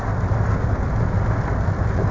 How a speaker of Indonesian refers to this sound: Uh, sebelumnya mohon maaf nih kalau ada suara gemericik hujan karena di luar sangat ya hujan lah. Jadi semoga tidak mengganggu.